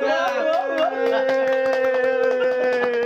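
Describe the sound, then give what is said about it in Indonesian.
A burst of clapping applause from friends greeting three special guests, a quick, irregular patter of many hands, over a steady sustained musical tone, loud. “kita kedatangan tamu spesial tiga halo Spotify kembali lagi bersama kami podcast Bopung dan hari ini adalah hari spesial mana suaranya tepuk tangan teman”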